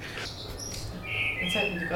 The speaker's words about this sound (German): Es ist ein Amsel, das weiß ich jetzt. Jetzt weiß ich wenigstens, was das für Vögel sind bei mir im Garten.